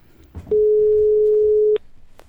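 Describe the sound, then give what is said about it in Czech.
A single steady electronic telephone tone from the other end of the line holds at one pitch for just over a second, loud and clean, then cuts off abruptly, with faint line noise and a brief click around it. “Mezitím se nám na druhé straně ozývá známý tón.”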